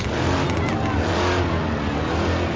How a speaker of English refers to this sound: And they're revving the bike.